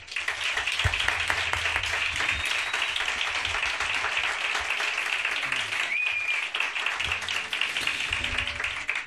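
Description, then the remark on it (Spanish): Loud, sustained audience applause for a singer guest on a programme in Madrid, a dense wash of many hands clapping steadily for the full stretch with no break, a few faint tonal bits and low murmurs underneath. “Fuerte aplauso.”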